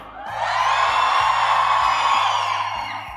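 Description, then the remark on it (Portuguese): An audience shouts and cheers loudly, a dense wall of whoops and yells that swells in and holds steady for a few seconds before easing off slightly at the end. “É menos gente gritando mais alto.”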